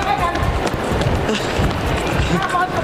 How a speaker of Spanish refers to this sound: Ana Bárbara, por su parte, usó el aeropuerto de México como si fuera una pista de carreras y toda la prensa corriendo detrás de ella para poder hablarle.